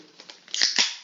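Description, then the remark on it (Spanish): A sneeze: a short, loud, breathy burst in two quick parts, a hissing intake-like rush followed by a sharper explosive release, with no talking around it. “salud, hermano. Salud.”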